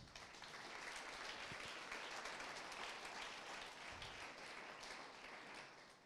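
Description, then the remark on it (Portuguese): An audience at a night church service applauding, a steady, dense wash of many hands clapping that holds at an even level for several seconds before easing slightly at the end. “Aplaudem nesta noite.”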